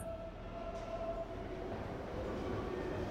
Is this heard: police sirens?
no